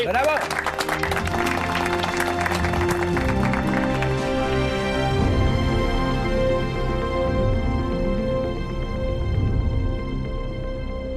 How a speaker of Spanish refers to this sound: Un aplauso para Jesús Mohan Sala.